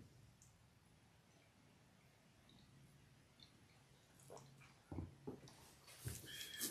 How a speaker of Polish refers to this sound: najpierw napiję się trzy łyki wody z miedzianego kubka.